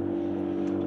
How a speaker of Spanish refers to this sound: Disculpen el tráfico.